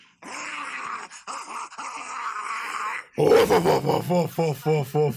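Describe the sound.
A person imitates a dog, holding a rough, throaty growl for a few seconds before breaking into a quick run of about six loud barks.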